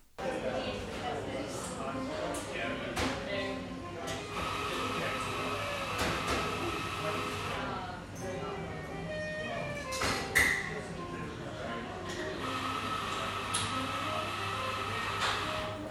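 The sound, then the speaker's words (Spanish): A busy café used as a workplace hums with constant overlapping chatter of customers, a waitress shouting, background music, clinking dishes and the steady hiss and whir of a coffee machine, with occasional sharp clatters cutting through the dense background noise. “Es el sonido ambiente de la cafetería desde la que trabajo. Hay mucho ruido.”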